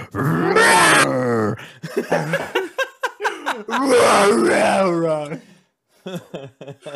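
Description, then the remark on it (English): A person growls out two long, loud roaring bursts in imitation of the MGM lion roar, with short vocal grunts and breathy sounds between them, followed by quieter choppy vocal noises near the end. “That's just the lion, right?”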